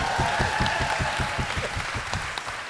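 Steady studio audience applause on the TV psychologist show Let Me Tell You with Dr. Paul, as the host turns to camera: a dense wash of clapping with regular low thumps underneath, holding at an even, fairly loud level throughout with no voices.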